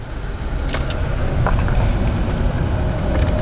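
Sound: car driving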